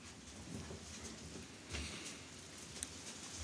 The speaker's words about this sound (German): Es hat gerade im Hintergrund angefangen zu regnen bin gespannt, ob man das hinterher auf der Aufnahme hört, aber es regnet mittlerweile.